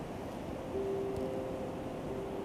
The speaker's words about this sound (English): Um, and there's a bird. I'm not sure what kind of bird is this. Um, I don't think it's pigeon.